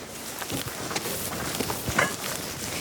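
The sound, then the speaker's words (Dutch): Soft, irregular footsteps swish and squelch through wet, mown pasture grass on a very wet peat research plot trampled by cows, the feet sinking into the ground, several steps in open outdoor air, with a brief faint chirp near the end and no one talking. “We lopen hier in het weiland waar de onderzoeksplot ligt.”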